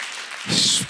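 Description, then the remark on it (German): Applause from a gathered church crowd for people about to be baptized swells in, a dense wash of many hands clapping at once, loud, rising in the second half of the short burst. “Komm mal, lass uns denen jetzt schon mal so einen richtig dicken Applaus geben.”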